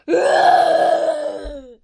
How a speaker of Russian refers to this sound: стоит человек, у этого человека в руке э, веревочка, и на этой веревочке вот этот bull rower, и он его вращает вокруг.